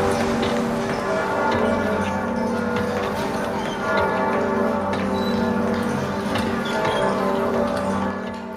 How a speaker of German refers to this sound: Glocken läuten vom Südturm.